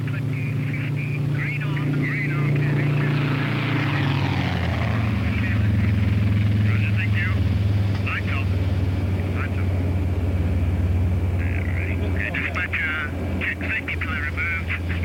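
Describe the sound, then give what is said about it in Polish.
A heavy 50-ton cargo plane flying at 300 km/h, carrying a crate in its hold to be dropped onto a landing site, drones steadily with a deep, continuous engine roar and propeller hum, loud, while a voice talks over it throughout. “Jeden fałszywy ruch i 50 ton pędzących 300 km na godzinę zwali się na ziemię. A tu chodzi o to, by na ziemię zwalić nie samolot, lecz ładunek.”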